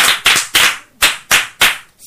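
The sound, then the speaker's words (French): A short burst of applause from a school class clapping together for a pupil: about seven sharp, loud claps in a fairly steady rhythm, with no talking over them. “Un bravo pour lui.”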